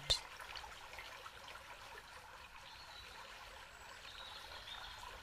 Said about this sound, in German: Und es kann sein, dass dieses Plätschern nun noch intensiver für dich wird.